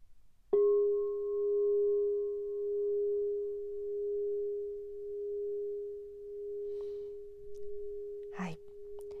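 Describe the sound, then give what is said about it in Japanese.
A 7-inch Rose Mother of Platinum crystal singing bowl made by Crystal Tones, labelled G-sharp minus 30, is struck once and rings a pure, steady G-sharp tone that hangs in the air for several seconds, slowly fading, with a brief rustle near the end. “クリスタルボール販売していた時の名前はローズマザー・オブ・プラチナ7インチ G シャープマイナス30というふうに書かれていたクリスタルボールさんになりますまずちょっとね一回音を鳴らしますね”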